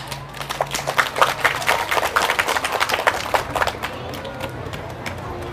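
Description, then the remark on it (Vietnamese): An audience bursts into a big round of applause at a speaker's request, a dense patter of many hands clapping together for about four seconds before it thins out and fades, leaving a faint low hum. “thì hãy dành một tràng vỗ tay thật lớn để cam kết”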